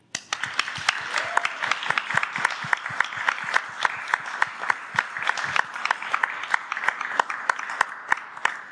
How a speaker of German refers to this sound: Ihr Publikum, die ihr hier im Raume seid und die zu Hause können natürlich auch mitmachen, aber euch würde ich jetzt einmal bitten, ganz, ganz laut äh, zu klatschen für das großartige Team von Alex Berlin, bitteschön.